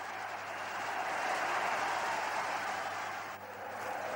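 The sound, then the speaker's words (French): A large stadium crowd cheers and applauds as the French team wins the Davis Cup, a dense, continuous roar that holds steady for several seconds, with a brief dip near the end before swelling again. “Dans le public, tous exultent.”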